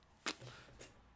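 A crisp, loud finger snap cracks, followed a half second later by a fainter second snap, with only quiet background noise around them.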